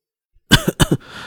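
A sudden, harsh burst of coughing: two quick double hacks in rapid succession, loud and raspy, with no talking, then fading into a faint breathy tail.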